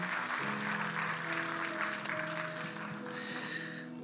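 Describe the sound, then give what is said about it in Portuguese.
A crowd applauds couples steadily for about four seconds, a dense wash of clapping over sustained low tones and a soft hum, tapering slightly toward the end. “Você pode aplaudir esses casais?”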